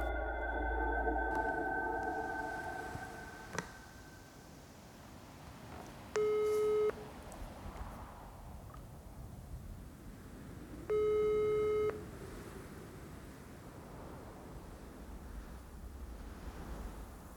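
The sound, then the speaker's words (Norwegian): A telephone ringback tone sounds twice during an outgoing call to a young man's mother, each steady electronic ring lasting about a second with a pause of several seconds between, over a faint hissing line background. “tok igjen på meg rollen som Jens Selnes for å ringe mora”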